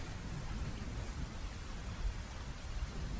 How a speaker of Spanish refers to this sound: Detrás de los cristales llueve y llueve.